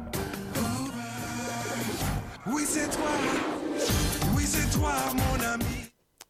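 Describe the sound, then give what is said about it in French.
Opening of the Marsupilami cartoon theme song: bouncy, busy music with sliding, bleating voice-like calls over a steady beat, loud and continuous for about six seconds before cutting off abruptly. “le générique, il commence comme ça, après ça fait Oui, c'est toi, mon ami, Marsupilami.”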